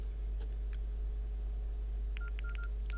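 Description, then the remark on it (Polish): A quick series of mobile phone keypad tones as the Mobile Speak screen reader is switched off, short dual-pitched beeps in an uneven rhythm, a couple early then several in a row near the end, over a steady low hum. “Teraz wyłączam Mobile Speak.”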